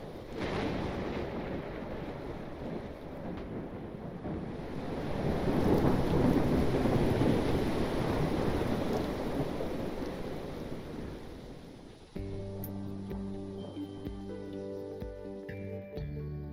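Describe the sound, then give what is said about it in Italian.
A thunderstorm with steady rain and crashing waves, a dense roaring wash that swells louder midway with deep rumbling, then cuts to music near the end. “Un lampo illuminò il bambino che volava oltre il pontile sbalzato via dai cavalloni.”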